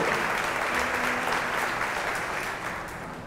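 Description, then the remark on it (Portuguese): A church audience applauds the Lord for newly received members, a dense wash of many hands clapping at once, loud and sustained for a few seconds before easing slightly toward the end. “Aplauda o Senhor pela vida desses que estão aqui.”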